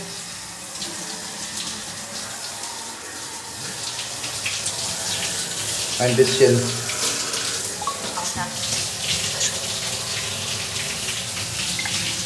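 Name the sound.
running shower water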